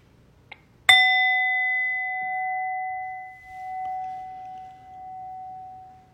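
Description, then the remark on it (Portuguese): A meditation bell is struck once to end a formal meditation practice. It gives a bright metallic strike followed by a steady, clear ringing tone that sustains and slowly fades over several seconds, with no talking. “E daqui a pouquinho eu vou convidar o sino a soar uma vez para a gente interromper esse treinamento formal.”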